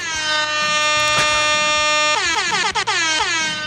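A loud, blaring air horn holds a steady tone, then breaks into a rapid series of short, bending blasts that wobble in pitch. No one speaks.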